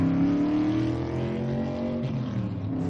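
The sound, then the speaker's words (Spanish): A car engine drones loudly and steadily throughout as the car turns right at a crossing and drives down a straight beside a bridge, its harmonic hum rising slightly in pitch as it accelerates toward the end. No voices are heard. “Gira a la derecha y conduce por una recta junto a un puente.”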